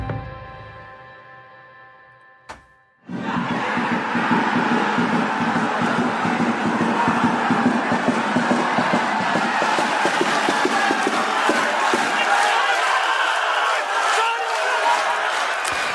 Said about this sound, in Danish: Øh, jeg tror, vi starter alle programmer det næste stykke tid med jubel, faktisk. For det er simpelthen så skønt at høre, når der er fans tilbage på stadion.